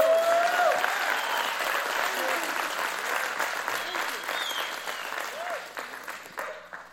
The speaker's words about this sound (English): If you believe it, why don't you give Jesus a hand clap of praise?